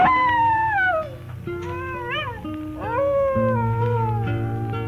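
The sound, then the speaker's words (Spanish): A coyote howls in long, wavering cries that slide up and down in pitch, several calls in a row, loud over a low steady background drone. “Por cuenta vivía sufriendo porque en los alrededores del pueblo se oyeron desde aquel día sus aullidos.”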